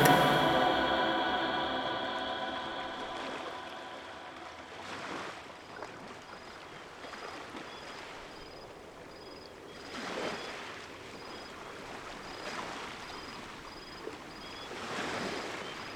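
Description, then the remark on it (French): Waves wash onto a beach in a slow rhythm, each broad surge of surf rising and fading every few seconds over a steady wash of water, with no voices present. “Toujours sur la plage, percé par la rythmique des vagues.”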